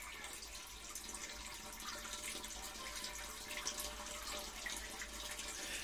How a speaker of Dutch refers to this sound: Dit is het geluid dat geen enkele ijsmeester wil horen. Het is het geluid van een schaatsbaan die langzaam leegloopt.